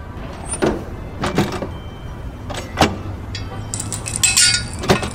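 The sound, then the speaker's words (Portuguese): Objects being loaded into a fancy car: several sharp thumps and clinks at uneven intervals, a door or hatch knock, and a brief bright rattle near the end, with no talking. “Calma, eu tenho umas coisas para colocar no carro.”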